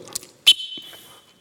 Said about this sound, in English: I love him because he understands this whistle.